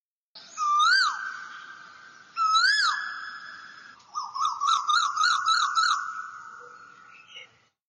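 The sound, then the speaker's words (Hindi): An Asian koel calls loudly: two long, rising-and-falling whistled notes, then a quick run of repeated bubbling notes, with no voices. “सुना आप लोगों ने थोड़ा अनोइंग लगा होगा कुछ लोगों को कि एकदम से आ, कोयल की आवाज़ कहाँ से आ गई कू कू करते हुए”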